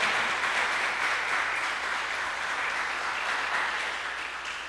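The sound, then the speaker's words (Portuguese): An audience applauds the Lord for the word of God, steadily, a dense, sustained crackle of many hands clapping at once, holding even loudness throughout and tapering only slightly toward the end. “Você pode aplaudir ao Senhor pela palavra.”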